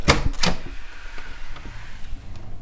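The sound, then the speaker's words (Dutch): Two sharp knocks or clunks, followed by a creaking, scraping sound as a green door swings open, with faint rattling afterward. “Ze zei die groene deur. Het is wel goed verstopt.”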